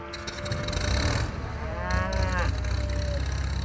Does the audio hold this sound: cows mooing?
yes